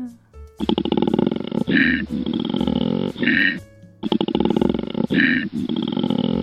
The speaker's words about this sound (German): Ein kleiner Bär, und zwar der Koala-Bär.